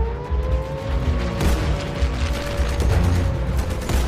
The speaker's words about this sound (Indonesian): Pukul 9.30, 16 Val Jepang pulang dari Kaga dari Pearl Harbor memberondong lapangan Weller saat Taylor dan Welch lepas landas ke arah yang berbeda. Taylor menerjang pesawat Val dengan rentetan tembakan.